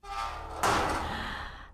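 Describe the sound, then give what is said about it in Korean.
A heavy metal apartment door is opened, starting with a low rumble, then a sudden loud scraping clank that drags on for about a second before falling quiet. There is no talking. “잠시 침묵이 흘렀고 그제서야 헬스한 얼굴로 대리님이 쇠문을 열었답니다.”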